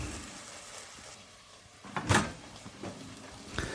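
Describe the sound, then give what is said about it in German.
Clattering kitchen handling sounds as a second frying pan is fetched from a cupboard: a sharp knock around the middle, followed by a few softer bumps and a final clack, with no talking. “Ich werde mal noch eine zweite Pfanne mir heranholen, damit ich gleich parallel die Orangen und die Zuckerschoten fertig machen kann.”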